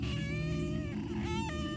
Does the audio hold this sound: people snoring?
no